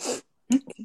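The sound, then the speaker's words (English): A single sneeze: a breathy hissing intake, a brief pause, then a sharp explosive burst trailing off into a short voiced sputter. “I had to sneeze.”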